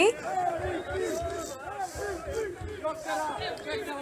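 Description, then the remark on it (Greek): A large crowd chants "MVP" in unison with a steady, repeating rhythm, loud and dense, the massed voices rising and falling over a roaring background hubbub, as Nikola Jokić goes rafting in Bosnia. “Ράφτινγκ, ε, ο κόσμο άρχισε να ναι. φωνάζει. MVP. Όπω ακούμε ρυθμικά MVP.”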